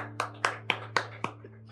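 People clap in unison, five sharp, evenly spaced claps in a steady rhythm, over a constant low electrical hum.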